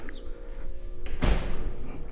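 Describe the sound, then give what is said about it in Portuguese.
A refrigerator door swings shut with a single firm thud about halfway through, fairly loud, over a low steady hum with no talking. “Desculpa, geladeira.”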